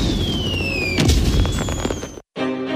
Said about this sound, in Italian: Mezzanotte con i fuochi d'artificio.